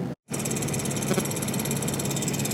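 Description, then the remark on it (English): A steady, rumbling bus engine drones continuously, with a rhythmic rattling texture and a brief dropout near the start, a NASA bus idling with passengers aboard. “Actually, it's just the sound of our crappy bus, which we're on because the launch was scrubbed.”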